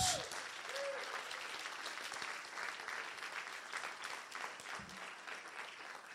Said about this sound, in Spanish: ¿Por qué no le das un aplauso fuerte a Jesús?